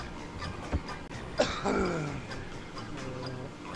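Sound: cough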